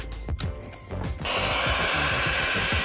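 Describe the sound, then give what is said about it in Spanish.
A newly unboxed electric hand mixer, supplied with four types of beaters, whirs to life after a second of handling noise, its motor settling into a steady, loud buzzing drone with a thin high whine on top. “Tenemos cuatro tipos distintos de varillas pues esta es la batidora.”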